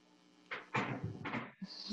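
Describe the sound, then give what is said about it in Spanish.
A chair is lifted and shifted, producing a quick series of wooden bumps, scuffs and scraping knocks over about two seconds, with no one speaking. “Para los que nos escuchan, o sea, todos, porque no hemos subido nada de esto a YouTube, acabo de levantar mi silla”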